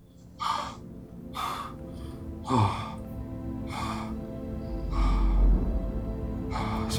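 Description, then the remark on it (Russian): A voice imitates heavy, ragged breathing: six loud, breathy gasps about a second apart, with no talking in between. “И начинаю дышать просто тяжело.”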